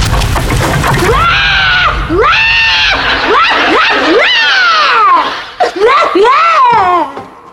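A girl crying loudly, with long, rising-and-falling high-pitched wails that come one after another almost without pause, breaking into shorter sobs near the end.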